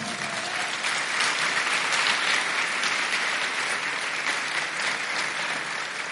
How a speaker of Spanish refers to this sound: Dele palmas al Señor.